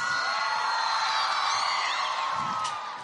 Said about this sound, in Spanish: Asimismo gritaba la gente. Habían cinco personas en ese examen.